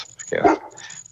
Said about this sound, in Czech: Máme tam trošku nějaké pozadí psa. A no, ještě jako už nějakou... není, už jsem zavřel dveře, to je to pořádku.